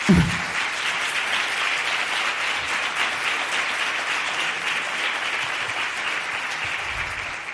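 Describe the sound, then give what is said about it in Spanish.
An audience in Alicante applauds steadily for several seconds for the fashion brands presented, a dense, even wash of many hands clapping at constant loudness with no voices standing out. “Así es que un aplauso muy fuerte para ellos.”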